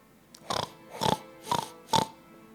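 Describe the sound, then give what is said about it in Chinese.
A pig oinks four times in a steady rhythm, each grunt short, nasal and fairly loud, separated by brief pauses with no talking. “猪 （pig）。”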